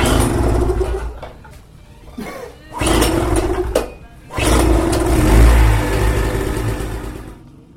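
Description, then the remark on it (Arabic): A small engine, like a generator, sputters and rattles unevenly, surging loud in rough bursts with brief dips between, a coarse, choppy mechanical chugging throughout. “شايف صوت صوتها بتكركر”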